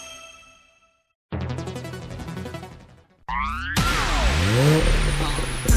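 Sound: car engine revving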